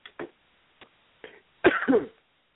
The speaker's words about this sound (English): excuse me. Of course, as soon as you started, I had to cough.